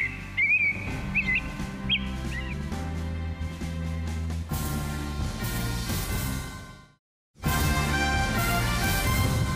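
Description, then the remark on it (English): A sparrow in San Francisco, studied by researchers in April and May during the coronavirus shutdown, sings a few short, whistled phrases over a steady music bed; after about four seconds the bird fades out and louder music takes over, briefly dropping out near the end. “Researchers studied sparrows in San Francisco in April and May and heard this.”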